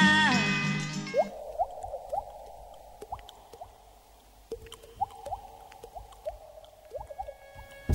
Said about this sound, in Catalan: Amb aquestes gotes d'aigua, nosaltres marxem.